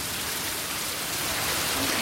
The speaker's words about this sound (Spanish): estas vecinas se mostraban así de sorprendidas al ver cómo corría el agua por su calle